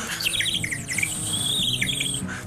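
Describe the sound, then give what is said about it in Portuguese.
Birdlike chirping and warbling made by blowing into a plastic case, a continuous run of high, wavering tweets and squawks over a low background rumble. “pensas, pá, está um passarinho a cantar na janela. Mas não, na verdade sou eu a soprar num caso de plástico.”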